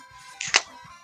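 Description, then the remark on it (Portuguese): A beer is opened: a brief fizzy hiss ending in a sharp pop, fairly loud against a quiet background with no one talking. “Esse é o som da minha cerveja abrindo.”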